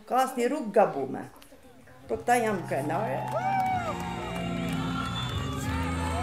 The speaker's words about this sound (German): Zwei Tage nach der Wahl ist der Skanderbeerplatz in Tirana voller jubelnder Menschen.